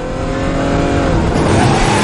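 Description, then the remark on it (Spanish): A car engine roars at full throttle as the car mounts the sidewalk and drives along it at full speed, its steady loud drone climbing slightly in pitch, with a rough, rumbling low end throughout. “Sube a la acera y conduce a toda velocidad.”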